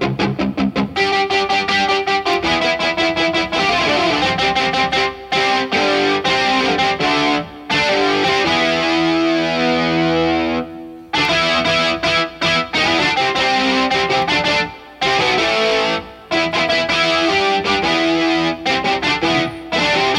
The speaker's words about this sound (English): 80s electric. Right, go down. 80s power chords.